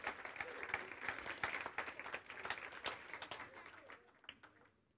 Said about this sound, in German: Applaus